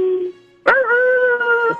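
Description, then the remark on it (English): A person imitates a wolf howl: a low steady tone, then a sudden attack rising into a long sustained, wavering howl held for over a second before fading out. “You've been working on your howl”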